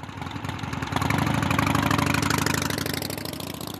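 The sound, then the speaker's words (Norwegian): A motorcycle engine idles in city traffic in Nairobi with a rapid, steady putter that swells a little after the first second and then holds, with no voices. “Mange er så lei av å ikke komme fram i trafikken i bil at de velger å kjøre motorsykkel.”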